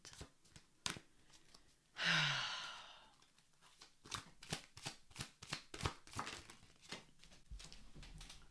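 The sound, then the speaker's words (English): A quiet, breathy sigh gives way to rhythmic shuffling of tarot cards, a quick run of soft papery flicks and taps as the deck is handled and a single card drawn, the Eight of Pentacles, with no talking. “We're starting with one tarot card to give me a little peace of mind.”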